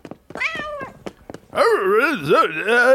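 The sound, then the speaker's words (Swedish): A person imitates a cat, voicing the cat character Kattis in a story, first with a few short vocal sounds, then a loud, drawn-out meow that swoops up and down in pitch for over a second. “Katten Kattis här.”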